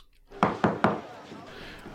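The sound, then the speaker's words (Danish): Three quick, firm knocks on a door in a fast even rhythm, fairly loud, each with a short hollow thud that rings briefly afterward. “Og så banker på døren, og det er Sasha.”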